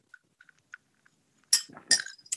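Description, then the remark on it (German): A few small, bright clinks of glasses in a toast tick by in quick succession, then a louder burst of liquid and gulping sounds as a gin and tonic is drunk, with no talking. “Also wir trinken jetzt. Mach eine kurze Pause. Zum Wohl.”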